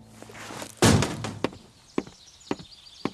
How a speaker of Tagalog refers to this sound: Dadabog-dabog tuloy ako nang makarating na ako sa wakas doon sa may likod bahay.